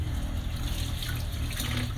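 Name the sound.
tap water running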